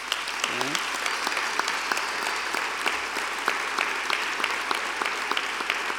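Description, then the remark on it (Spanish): Sustained applause from an audience for the priests of the diocese of Jaén: a dense, steady patter of many hands clapping for several seconds, with a brief murmur of voices near the start. “en la diócesis de Jaén, para los que yo hoy, que están siendo víctimas de tantos ataques en este momento y de alguna manera pues están siendo víctimas de una visión negativa de sus personas y de su misión, pediría un aplauso para nuestros sacerdotes.”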